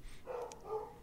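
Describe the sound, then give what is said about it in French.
A couple of short, muffled dog barks, fairly faint against a quiet background. “C'est le chien de qui qui jappe comme ça, là?”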